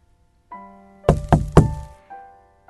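Three firm knocks on the door of a glass-walled company conference room in quick, even succession, loud, with a soft steady musical tone humming underneath before and after.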